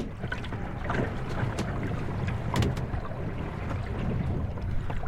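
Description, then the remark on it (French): Water rushes and gurgles steadily along the hull of a sailboat at night, a continuous wash with occasional sharp slaps and knocks over a low rumbling background. “si vous n'avez jamais dormi euh, dans un bateau, je vais vous enregistrer des extraits audio de combien c'est bruyant un voilier. C'est méga bruyant. On entend le bruit claquer et on entend l'eau s'écouler autour de nous.”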